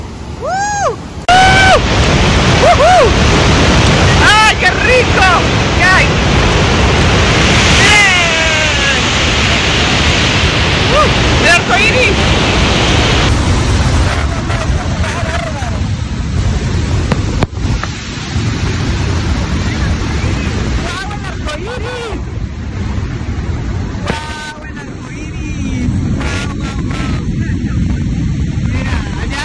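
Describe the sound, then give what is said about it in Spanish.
Loud, continuous rush of falling water splashing, with water falling from above and below, a dense steady roar that fills the whole clip, with faint voices occasionally breaking through underneath. “el agua cae de arriba y de abajo.”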